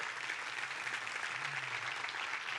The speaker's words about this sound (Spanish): ¿Cuántos dicen amén? Denle un fuerte aplauso a Dios por eso.